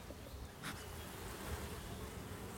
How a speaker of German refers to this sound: Und dann können wir mal so eine Honigwabe uns anschauen. Denn die Bienen tragen hier eben den Nektar ein.